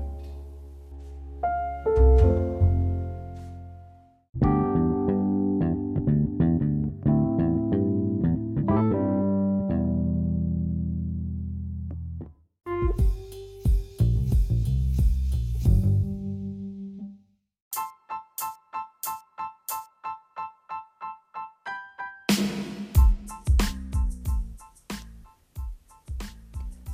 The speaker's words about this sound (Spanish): bueno, ya, vamos a la cortinilla.